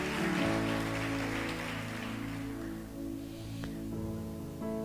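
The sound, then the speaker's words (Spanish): An audience applauds God in a dense, steady clatter of clapping over sustained organ-like musical tones, the clapping thinning out toward the end while the music continues. “Es fuerte ese aplauso a Dios y se lo va a dar.”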